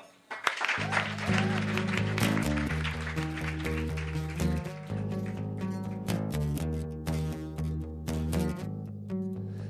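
Steady applause from a large crowd in Kristiansand welcoming a performer continues as instrumental music begins beneath it, with sustained low chords and bass notes running throughout.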